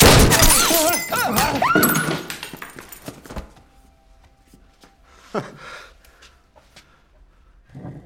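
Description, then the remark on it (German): A loud, sudden gunshot cracks and bursts into a crash of shattering glass and metal as a coffee machine is shot, with ringing, clattering debris fading over about three seconds, followed by a few scattered clinks and soft thumps. “Diese Kaffeemaschine war ein Geschenk unserer Partnerschule aus Toulouse.”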